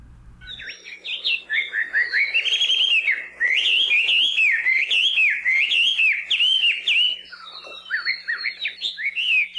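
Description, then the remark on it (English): A melodious laughing thrush (Chinese hwamei), a rusty-brown songbird about 9 inches long, sings a long, rich, continuous song of clear whistled phrases that rise and fall, loud, with no talking, only a brief low thump at the start. “Not every bird has a great name, but you'll hear no complaints from the melodious laughing thrush.”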